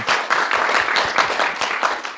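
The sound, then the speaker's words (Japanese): A crowd applauds steadily, a dense wash of many hands clapping at once, sustained throughout with no voices standing out; the audience applauds to welcome a questioner at a talk event. “さあ、えー、前回ご質問者の方いらっしゃいましたが、えー、今回も、えー、勇気ある質問者の方がいらっしゃいますので、皆さんもう一度拍手をお願いします。”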